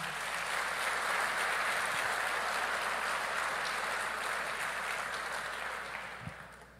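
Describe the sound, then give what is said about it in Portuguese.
A church audience applauds Jesus, breaking into sustained applause, a dense, steady wash of many hands clapping that holds evenly for several seconds before tapering off near the end. “Ok, então aplauda Jesus para você não perder o costume.”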